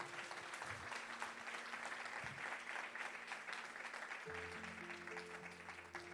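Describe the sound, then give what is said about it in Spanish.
An audience applauds steadily in the afternoon, a dense wash of clapping that holds throughout, with low sustained organ or keyboard tones entering underneath toward the end. “Dale un aplauso fuerte en esta tarde.”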